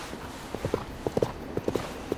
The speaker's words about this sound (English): Is that a horse running? No, it can't be. Oh, I must be making it up. It was a horse.